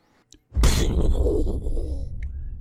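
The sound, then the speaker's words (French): A voice imitates a gunshot with the mouth: one sudden, loud, breathy burst trailing off into a long rough hiss that slowly fades. “Là, tu fais, les bruits de coups de feu avec ta bouche, mais au montage, tu vas rajouter les bruits.”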